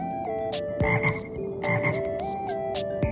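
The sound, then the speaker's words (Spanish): A toad croaks in a run of short, raspy bursts, roughly a dozen in quick uneven succession, fairly loud over a steady warbling tonal background, with no one talking. “Qué bueno entender el lenguaje de los sapos.”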